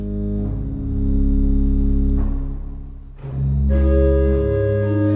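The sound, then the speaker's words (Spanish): A pipe organ sustains a loud, full chord with rich low bass, shifting to a new chord midway, the sound held steady with no voices. “Y ahora va a entrar un acorde con más sonido para que escuchemos el órgano más completo.”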